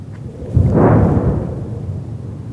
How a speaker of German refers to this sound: Oben angekommen hört man das Grauen des Krieges und man sieht es. Dem Knall des Artilleriefeuers und der Angriffsflüge der israelischen Luftwaffe folgen schwere Detonationen im Gazastreifen.